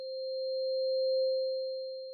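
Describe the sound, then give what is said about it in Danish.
A single steady, pure electronic tone holds at one pitch for about two seconds, clean and continuous with a gentle swell in loudness, and nothing else around it. “Så de nederste hår i sneglehuset tænder, hvis det er en dyb tone, og de øverste tænder, hvis det er en løs tone”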